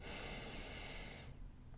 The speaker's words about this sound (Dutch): Neem nog een diepe ademhaling in door je neus.